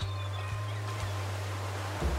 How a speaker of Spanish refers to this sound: Siento la brisa marina que me relaja y escucho el graznido de las gaviotas junto con las olas rompiendo en la orilla del mar.